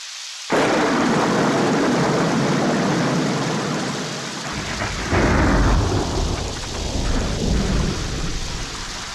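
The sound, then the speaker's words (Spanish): A heavy downpour roars in suddenly and keeps up a dense, steady hiss, while deep rolling thunder swells midway through and rumbles on beneath the rain. No voices are heard. “El barco se inclinó para un lado y para el otro, en medio de la infernal tormenta que barría la cubierta a baldazos.”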